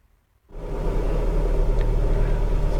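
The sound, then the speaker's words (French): After a brief silence, a Mercedes car engine catches as the ignition is switched on and settles into a steady, heavy low rumble heard from inside the vehicle, loud and continuous with no talking. “donc on se retrouve euh, dans le véhicule, donc euh, j'ai mis, mis, le contact”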